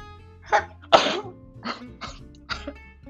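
A sharp sneeze bursts out after a short intake, followed by a few softer breathy sniffs and exhalations spaced about half a second apart, with no talking.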